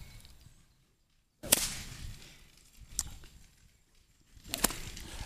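Sharp whip cracks snap out, made with a flick of the wrist: two loud ones about three seconds apart with a softer crack between them, each followed by a brief swishing tail against quiet background noise.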